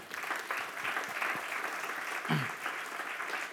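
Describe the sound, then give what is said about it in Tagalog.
An audience bursts into steady applause for the Lord, a dense wash of many hands clapping at once for several seconds, with a brief voice or cheer rising partway through. “Yan, palakpakan natin si Lord.”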